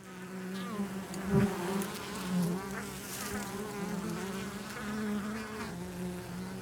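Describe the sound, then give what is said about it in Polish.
A steady, dense drone of many bees buzzing, with individual wingbeats rising and fading as insects pass, continuing without pause and with no voices. “The bees are considered to be the most important animals.”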